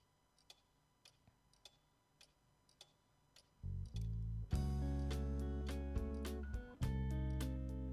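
A song opens with sparse, steady clock-like ticks on their own, then a heavy low drone enters and swells into a loud, dense wall of experimental music with sharp accents.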